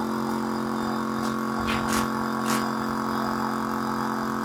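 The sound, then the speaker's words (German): A pump hums steadily with a constant mechanical drone and airy hiss, briefly surging a few times midway as liquid is pumped into a barrel. No one speaks. “Das Klingt so ein bisschen wie. Äh, wir haben so einen Inhalator.”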